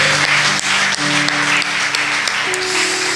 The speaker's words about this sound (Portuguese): Vamos aplaudir o Senhor? Assim tem que ser.